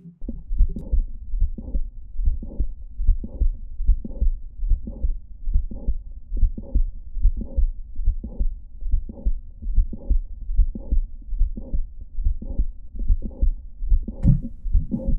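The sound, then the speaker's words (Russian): Stethoscope recording of a steady heartbeat with mitral valve prolapse, each beat carrying a sharp click followed by a late systolic murmur, repeating about eighteen times at a regular resting pace with no talking. “Щелчок, конечно-систолический шум.”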